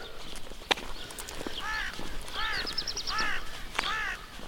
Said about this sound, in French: Et le corbeau qui avertit l'arrivée d'un pèlerin.